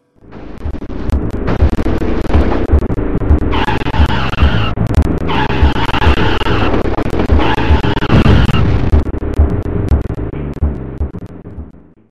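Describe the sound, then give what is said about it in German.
A racing video game on the Super Nintendo: its loud, steady engine roar fills the whole stretch, broken by three shrill tire squeals in quick succession, each lasting about a second or more. No one speaks. “Und das Spiel heißt RPM Racing, ist ein Rennspiel.”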